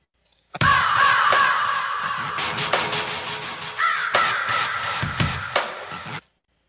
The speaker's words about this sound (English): Raven. Raven. Yes.